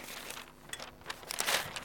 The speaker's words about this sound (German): kommt doch ein bisschen Wind auf hier.